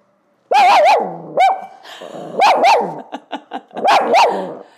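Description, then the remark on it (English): A dog barks loudly in repeated bursts during filming, sharp harmonic yaps coming in quick pairs with short pauses between, no voices present. “Filming with a dog.”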